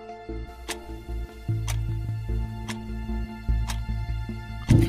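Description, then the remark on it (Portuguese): A clock ticks steadily about once per second, crisp, over a low, sustained musical drone that swells gradually louder. “o relógio já dava 9 horas da noite.”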